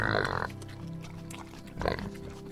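A pig oinks twice, a loud snorting grunt at the start and a shorter one near the end, with a low steady hum filling the gap between them.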